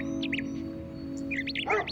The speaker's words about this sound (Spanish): Y transcurrió la noche y llegó el día siguiente y escuchó el canto de las aves, varias de ellas en su parcela, así como los ladridos de sus perros.